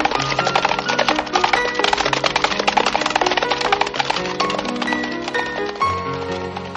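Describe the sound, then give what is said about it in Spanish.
A group of soldiers on horseback clip-clops past a ranch, a dense, continuous clatter of many hooves at a brisk pace, fairly loud, with sustained low tones running underneath. “Un grupo de militares a caballo pasa ante el rancho de Doña Elena.”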